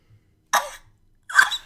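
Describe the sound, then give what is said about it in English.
Someone imitates the high-pitched cough of the TV character Monk with two sharp, breathy bursts a moment apart, fairly loud, with no talking around them. “My last one is Monk's high pitched cough.”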